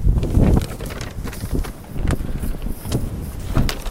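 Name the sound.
wind blowing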